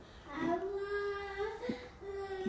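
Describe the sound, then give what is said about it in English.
A child in the background makes sustained, wordless vocal tones, a steady hum-like voice holding pitch with brief breaks and small pitch jumps, repeated across the moment at moderate volume as vocal stimming. “in the background stimming.”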